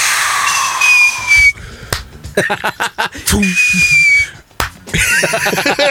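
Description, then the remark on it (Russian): A voice imitates fireworks twice: a hissing, falling whistle, then a rapid string of sharp pops and crackles, and the whistle and bursts repeat once more. “Хороший салют.”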